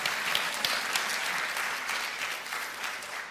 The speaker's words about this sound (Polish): Dziękuję ci bardzo. Brawa dla naszego modela.